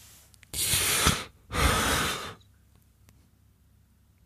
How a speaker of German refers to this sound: … atmet ein.